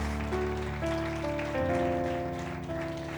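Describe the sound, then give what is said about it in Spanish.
Steady crackling applause from a crowd fills the space, sustained for several seconds over held organ-like chords playing in the background. “Si quieres aplaudir, apláudele fuerte.”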